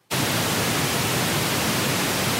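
A steady wash of pink noise, smooth and full with a heavier low end than white noise, starting abruptly after a brief silence and holding constant at an even, fairly loud level.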